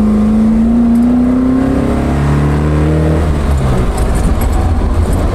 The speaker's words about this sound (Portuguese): E esse som, hein? Ah, delícia! esse som, a proximidade dos pedais, esse som do escape.